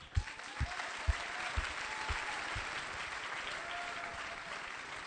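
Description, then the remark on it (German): An audience breaks into applause to welcome a woman called up to tell her story about prayer, a dense wash of clapping that holds steady throughout, with a few sharper, louder claps standing out near the start. “komm doch schnell, wo bist yes, komm, wir geben Applaus.”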